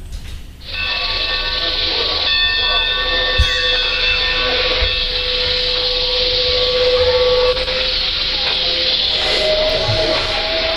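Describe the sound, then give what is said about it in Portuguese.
A steam locomotive train runs steadily, with a continuous mechanical rumble, rhythmic clattering, and a bright sustained hiss or whistle-like tone layered over the top throughout. “É uma Maria Fumaça? É uma Maria Fumaça.”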